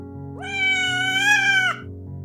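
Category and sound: animal, cat meowing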